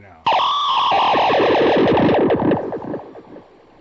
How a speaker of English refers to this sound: But right now I've got the guitar triggering it. So so any string I play, so I can't play it. I can't play the guitar like a guitar now with that pedal plugged in. It'll all make the same sound.